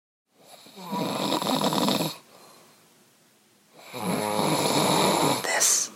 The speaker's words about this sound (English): is the sound of … snoring